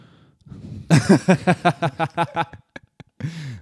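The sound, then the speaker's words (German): A voice gasps for air after forgetting to breathe, a quick, breathy series of about a dozen rhythmic pulses, like panting laughter. It fades out, followed by a short voiced breath. “Ja, ich habe vergessen zu atmen.”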